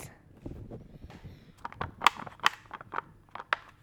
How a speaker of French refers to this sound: Ça, c'est le bruit de l'emballage très à ouvrir ce yaourt.